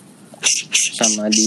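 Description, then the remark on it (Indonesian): A house cat fighting a stray village cat: two sharp, breathy hissing bursts, then a drawn-out, whining yowl. A person's voice is briefly heard over the scuffle. “ada aja di distraction eh ada kucing mana ireng eh, kucing gua berantem sama kucing kampung udah lari”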